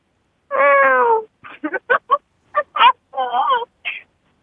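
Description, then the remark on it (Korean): A child's voice imitates a baby kitten, starting with one long, wavering meow and then a string of short, squeaky mews, clear with no background sound. “고양이 소리요. 고양이 소리? 네. 애, 기 고양이?”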